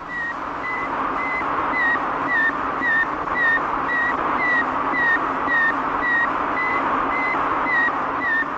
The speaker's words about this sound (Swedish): It's a report from man's farthest frontier, the radio signal transmitted by the Soviet Sputnik